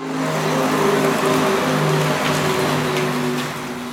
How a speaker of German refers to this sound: So, was war das? Fast also, alle Profis haben es erkannt, was es war. ja, das war eine Renault Zoe und die macht ja, wenn sie, ich glaube, unter 30 km/h fährt oder bis 30 km/h, dieses Geräusch, was wir gerade gehört haben